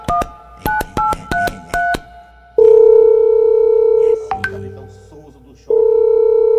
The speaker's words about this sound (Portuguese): Tá chamando, tá chamando. Desligou? Desligou.